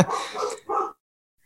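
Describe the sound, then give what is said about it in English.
Dogs bark three times in quick succession, loud, each bark short and sharp, followed by silence. “I think your dogs are just hearing you talk about church's bait and switch, and they're they as are.”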